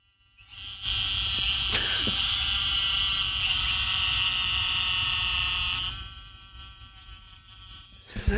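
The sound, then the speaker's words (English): A dense chorus of trilling toads hums as one continuous high, buzzing drone, steady and loud for about five seconds before fading away into quiet background noise. “I want to imagine a toad as we hear this.”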